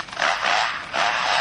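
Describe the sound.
A bird imitates a chainsaw: a harsh, raspy buzzing whine that surges twice with a brief dip between, loud, with no one talking.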